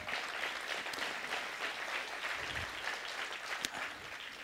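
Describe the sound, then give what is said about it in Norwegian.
An audience at New Church for a New Generation applauds steadily, many hands clapping in a dense, even wash of sound that holds at a fairly constant level for the whole stretch, with one sharper clap standing out near the end. “Ja, du kan få klappe for den.”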